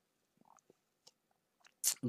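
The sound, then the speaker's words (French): Quiet sips of Fanta soda with faint wet mouth clicks and slurps, ending in a sudden loud, breathy swallow or exhale. “je vais te répondre tout de suite, après une petite gorgée de Fanta.”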